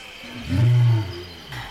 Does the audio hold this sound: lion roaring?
yes